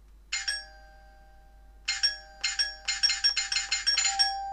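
An electric doorbell at a home, rung by the postman, rings once, pauses, then rings again in a rapid, insistent series of bright metallic bursts, clear with no talking.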